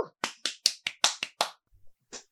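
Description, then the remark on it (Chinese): A quick run of about eight sharp, bright hand claps in steady rhythm, followed by a short pause, a soft low thump, and one final clap. No one speaks. A person is applauding themselves to celebrate the launch of an Instagram account. “自己鼓掌。”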